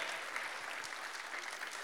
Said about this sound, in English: Of course, look, ladies, a round of applause for him firstly. We must give him some credit.